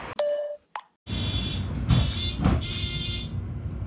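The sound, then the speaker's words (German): A short electronic chime and a click, then a bus engine rumbles steady and loud, with a high hiss and brief surges, as a bus pulls up to a stop. “Oh, da kommt ein Bus, den ich nehmen könnte, um zum dänischen Netto zu kommen.”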